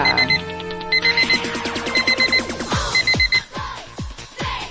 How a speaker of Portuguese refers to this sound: Pega o despertador de 1,99